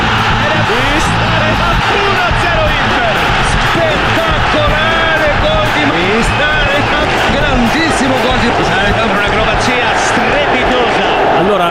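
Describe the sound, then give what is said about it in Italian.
A loud, dense stadium crowd at a football match on Friday 17 December 2021 roars and cheers without pause as a goal is scored, a thick wall of voices with excited commentary mentioning Ibrahimovic running over the top throughout. “se cioè questo, questo, tifo da stadio sia stato alzato post Reca.”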